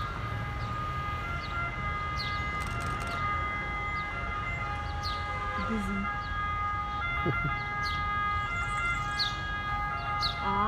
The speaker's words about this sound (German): Schon wieder Sirene hier.